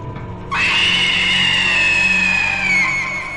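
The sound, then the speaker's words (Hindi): A witch lets out a sudden, loud, shrill scream that holds steady for about three seconds, harsh and piercing, over a low rumbling background, then starts to fade at the end. “अपने शिकार को दूर जाता देख उस डायन ने एक जोरदार चीख लगाई”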